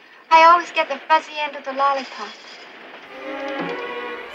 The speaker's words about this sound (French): Ah, y a des trains là aussi.